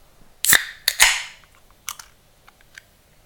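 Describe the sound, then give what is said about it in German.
A can of fruited gose beer is cracked open: a few sharp metallic snaps followed by a brief fizzing hiss that fades, then some faint clicks. No one speaks. “So, und ich mache die Dose jetzt auch direkt auf.”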